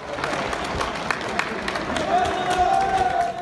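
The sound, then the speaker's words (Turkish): Sustained applause and scattered cheering from a crowd at a student dormitory in Konya where people returning from Umrah were held for 14 days as a precaution, with a rough, echoing quality, steady throughout with faint voices and a brief whistle rising through it. “Konya'da Umre'den dönenlerin 14 gün süreyle tedbir amaçlı tutulduğu öğrenci yurdundan da alkış sesleri yükseldi.”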